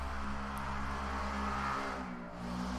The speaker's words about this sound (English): you're going to drive your little shitty moped or whatever that is in the middle of my podcast. That's a lot of nerve. Whoever you are, that it sounds like a weed whacker or some sort of lawn mowing device.